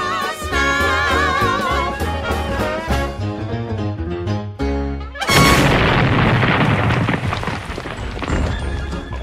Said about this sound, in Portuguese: Mas assim, quando o Pluto salva a cesta de piquenique do carro, uma torta voa e cai em cima da chaminé da locomotiva a vapor do, do Pateta. Uhum. e aquilo ali entope e causa uma baita explosão.